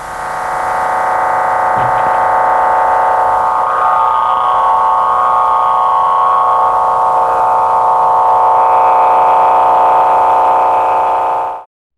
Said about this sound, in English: where the noise the TARDIS makes is remarkably annoying. It's just, it's constantly there and it's not quite to the point that it drowns out everything, but it's just grating.